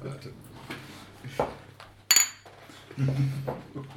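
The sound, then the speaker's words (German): A single sharp clink of mugs knocking together in a toast, a bright ringing hit that stands out over low background murmur and voices before and after. “ich stoße mit dem Kruchen. Prost.”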